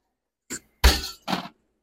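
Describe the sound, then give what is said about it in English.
Two big ice cubes from a freezer drop into a cocktail shaker with three sharp clinks and clunks, the middle one heaviest with a dull thud, over about a second with no talking. “And now I'm going to add uh, two big ice cubes, which are actually right down here in my freezer.”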